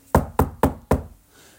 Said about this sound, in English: And so they knocked on the door